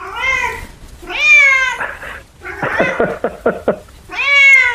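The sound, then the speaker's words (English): A three-year-old female Bengal kitten named Rory meows loudly and insistently, several long harmonic yowls with a burst of short chirping cries between them. “She's a little uh, three year old Bengal kitten, which is gorgeous.”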